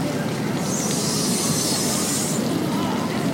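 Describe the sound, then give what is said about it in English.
A little metal playground slide gives a sustained, high-pitched metallic squeal lasting about two seconds as someone goes down it, heard over a steady low rumble of background noise. “That is a horrible sound and also must have burned to go down that little metal slide.”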